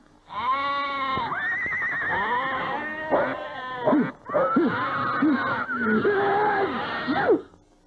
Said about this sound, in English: Horse make you sneeze, goat make you sneeze, duck make you sneeze, sheep make you sneeze. What's that? You stay away from these things? On the contrary, you live with them horse, goat, duck, sheep.